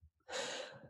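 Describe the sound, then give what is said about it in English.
A single sharp sneeze from a dog: a quick snuffly intake, then a short breathy burst of air, heard on its own with no talking. “That was my dog.”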